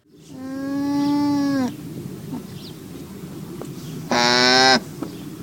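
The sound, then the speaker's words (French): Two soft, nasal llama hums, a mother and her newborn cria communicating around the birth: a longer, lower hum first, then after a pause a shorter, higher and slightly louder one, over a low rumbling background. “À la naissance, la maman et le petit communiquent énormément par de légers hum”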